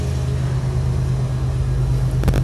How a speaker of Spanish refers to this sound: Ese es el tren que está pasando por mi casa. Vamos a acostumbrarnos a escucharlo de vez en cuando.